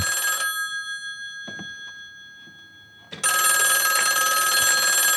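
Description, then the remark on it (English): An old-fashioned heavy telephone bell rings loudly in a scene from the film No Country for Old Men: a brief metallic burst, a quiet pause, then a long, sustained clattering ring. No voices are present. “Again, old school heavy phone.”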